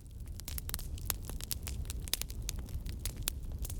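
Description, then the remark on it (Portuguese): A fire crackles steadily, with irregular sharp pops and snaps over a low, soft rumble. No voices, and the crackling stays moderately loud throughout. “Tentou com fogo, mas o fogo se apagou.”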